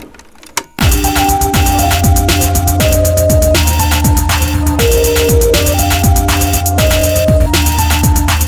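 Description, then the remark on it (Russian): A full music mix kicks in after a brief quiet moment, with a steady thumping beat, deep sliding bass and sustained synth melody lines, dense and loud throughout with no voices. “Я сейчас вот покажу пример, это кусок из моей собственной музыки, как она звучит вот целиком.”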